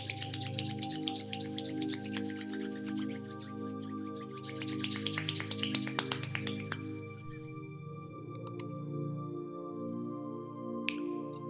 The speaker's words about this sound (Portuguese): Agora junte as palmas das suas mãos e esfregue uma contra a outra com vigor por alguns instantes.